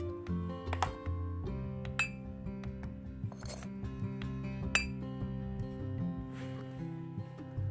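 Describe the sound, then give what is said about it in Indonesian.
Ground coffee and sugar being spooned into a glass to make Indonesian kopi tubruk: a series of light glass clinks at irregular intervals, ringing briefly, over a steady low musical background. “Hal tersebut mengacu pada proses pembuatan kopinya, yaitu dengan menaruh kopi bubuk dan gula di gelas”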